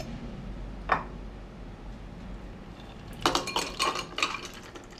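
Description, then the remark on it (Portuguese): A single glassy clink, then a caipirinha tipped unstrained from a cocktail shaker into a glass, with ice and contents tumbling out in a rattling, clattering rush for over a second. Fairly loud, with no voices. “A caipirinha ela é servida exatamente do jeito que sai da coqueteleira.”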